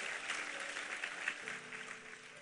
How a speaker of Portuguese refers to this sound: Pode, pode aplaudir a Ele.